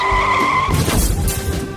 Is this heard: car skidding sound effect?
yes